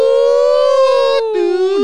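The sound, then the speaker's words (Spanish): A voice imitates the sirens of a base starting to wail: a long, steady, slightly falling howl, a brief break, then a second lower tone that slides downward, loud. “De, de, la base ahí las sirenas sí, empezaron.”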